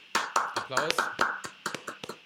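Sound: brief hand clapping applause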